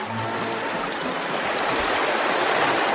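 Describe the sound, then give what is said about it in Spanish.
Steady rushing of flowing river water from the river in the town of Velodvodovsk in central Ukraine, a dense continuous wash of splashing and gurgling that stays loud throughout, with no voices present. “Es el sonido del río y el lago que hay en la ciudad en la que nació.”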